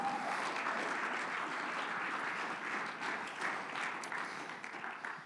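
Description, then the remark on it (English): A church audience claps their hands unto the Lord in sustained, dense applause, a steady crackling wash of many hands that holds loud for about five seconds before easing slightly at the end. “I wish if you believe that you'd clap your hands unto the Lord.”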